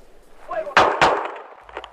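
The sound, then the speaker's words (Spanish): Two loud gunshots crack out about a quarter second apart, each with a short ringing decay, over faint muffled background voices and noise; shots fired by Los Angeles Police Department officers that killed a Hispanic man, recorded on their body cameras. “Luego de haber matado a tiros a un hombre hispano, los comentarios de dos oficiales del Departamento de Policía de Los Ángeles quedaron grabados en sus propias cámaras corporales,”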